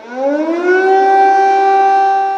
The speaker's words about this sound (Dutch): gecombineerd met die verwarring en ook het voortdurende luchtalarm